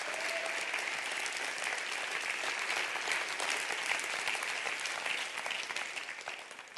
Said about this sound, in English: Come on, clap your hands right now. Clap your hands.